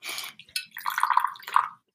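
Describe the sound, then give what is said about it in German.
A short splash of tea being poured into a cup, a gurgling trickle lasting under two seconds with a brief hiss at the start and no voices. “Ich gieße mir mal gerade noch ein bisschen Tee ein, wenn es okay ist.”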